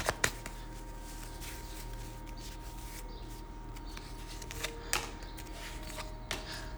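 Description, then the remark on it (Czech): Soft card handling: scattered crisp snaps and light flicks of cards being shuffled during a fortune-telling card reading about a future partner, heard over a steady low background hum with no one speaking. “A já už se dívám na vaši fotku, míchám u toho karty a my se spolu podíváme, kdy tak asi budete v partnerském vztahu.”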